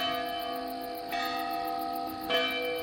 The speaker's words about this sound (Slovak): Hodiny na veži odbili 3 štvrte na dve.